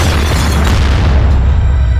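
A loud bomb explosion: a deep, booming roar with heavy low rumble and hissing debris noise that stays strong for the full two seconds, with no voices.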